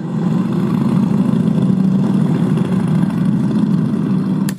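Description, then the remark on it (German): A group of motorcycle engines rumbles and idles together in a thick, steady low drone, fairly loud for the whole stretch, with no voices, as bikers mount and start their machines and a convoy begins to move off past the Michel toward the A1 amid exhaust smoke. “sitzen Bikerinnen und Biker auf und lassen ihre Maschinen an. Die ersten setzen sich bereits in Bewegung.”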